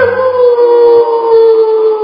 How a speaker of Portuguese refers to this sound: imediatamente o lobo levantou com um grito.